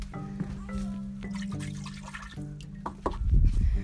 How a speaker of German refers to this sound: So, jetzt mache ich noch unten Wasser rein. neues Wasser, um genau zu sein.